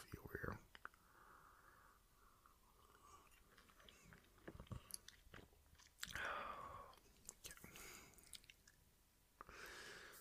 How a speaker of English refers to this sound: I'm gonna take another little sip of coffee.